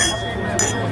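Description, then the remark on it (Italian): Glasses clink together once in a toast at the start of the Mobile World Congress, a bright chime ringing out over a low murmur of background voices and hum. “Brindisi d'inizio Mobile NDA Mobile con Brindisi Mobile World Congress e si parte ufficialmente.”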